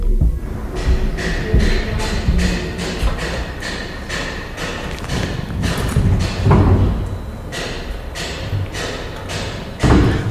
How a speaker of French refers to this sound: Bref, lui aussi, il a les travaux et la circulation en fond sonore. C'est peut-être le propre de la ville, de sa nécessité de mouvement constant et de perpétuel renouvellement.